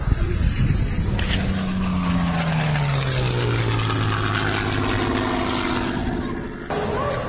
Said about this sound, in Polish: Tak, no to tyle w tym wejściu o samolocie SE-5, a potem jeszcze yy, będzie troszkę jak, jak leci, to jak ten silnik chodzi. Ja jeszcze nie widziałem go w locie, szczerze mówiąc, to dla mnie jest duża niespodzianka.